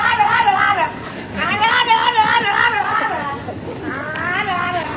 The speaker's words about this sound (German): Ähm, da haben Hundehalter in ihren, ihre Bulldogge ähm, in einem Kinderwagen durch die Stadt geschoben und das hat ganz komische Geräusche gemacht, dieses Tier.